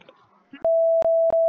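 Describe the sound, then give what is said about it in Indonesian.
A steady high-pitched censor bleep tone cuts in abruptly after a moment of quiet talk, holding loud and flat with a couple of brief clicks breaking it up. “Eh, eh, pip, pip, pip, pip, sensor, sensor, sensor, tolong, tolong, tolong.”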